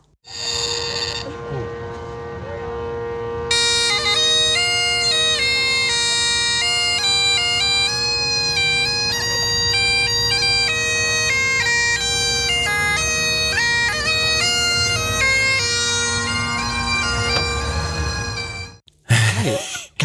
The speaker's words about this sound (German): Ja, da bin ich vorbeigefahren mit dem Auto, hab's Fenster aufgemacht, hab gesagt, muss ich filmen. Glaubt einem kein Mensch. Steht ja. mitten an der Straße einfach ein Typ mit der Highland Pipe.